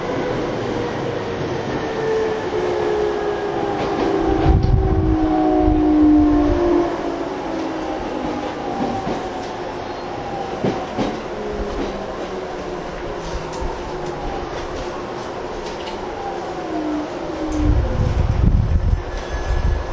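A TWR 70-000 series commuter train on a Saikyo Line rapid service between Shin-Kiba and Akabane runs steadily, its motor whine sliding down and then up in pitch over a constant low rumble, with occasional rail clunks and surges of louder rumbling; no one speaks.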